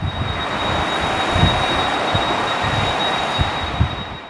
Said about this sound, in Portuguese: O som e a imponência do avião beluga fazem-nos parar e observar. Grande, branco, como a baleia que lhe deu o nome, este avião de transporte de peças da Airbus já não é tão comum nos céus de Toulouse.